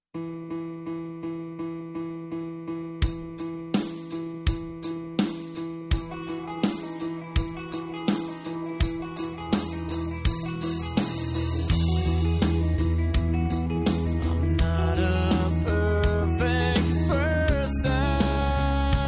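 A rock song plays with no voices over it, opening on steady repeated notes before the full band swells in around the midpoint and carries on loud and driving.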